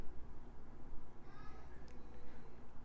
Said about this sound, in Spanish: No sé si se escuchó eso. Fue mi hermano gritando que anda jugando Xbox.